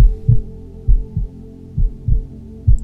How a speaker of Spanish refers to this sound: Es posible que hayas escuchado los latidos de otro bebé algún día, de un hijo, de un hermano.